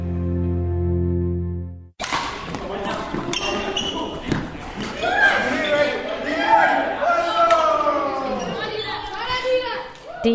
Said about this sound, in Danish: Det er en halv fuld af knoklende badmintonspillere, jeg vil skyde på, at øh, de spillere, der er på banen nu, de er et sted mellem 9-10 øh, år og 14